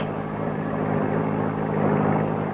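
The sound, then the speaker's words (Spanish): A car engine hums steadily and grows slightly louder toward the end, as if drawing nearer. A low droning rumble runs throughout with no voices. “Tiene un auto. Le pediré que me lleve al poblado más próximo.”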